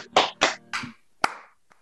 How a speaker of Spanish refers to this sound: ¡Aplausos!